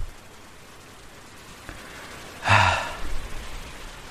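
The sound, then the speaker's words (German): Steady rain hisses during a bike ride, with a short, sharp breathy gasp cutting through midway and a few low rumbles afterward. “Ja, besser wird's leider nicht. Regenradar ist alles äh, dunkelblau und zwischenzeitlich auch so lila.”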